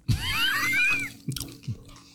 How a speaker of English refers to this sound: You want more? You want one more round? Yeah, a little bit more. People like us chewing.